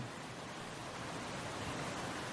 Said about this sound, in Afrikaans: En dis hoekom die water nie meer so hard vir my klink nie.